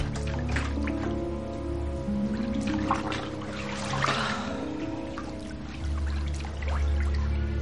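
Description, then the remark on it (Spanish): Steady pouring water fills a wooden bathtub with hot water for a bath, a continuous low rush with small splashes and gurgles, moderately loud, with no talking. “Más tarde el joven llena su bañero de madera y mira la etiqueta de un bote de gel.”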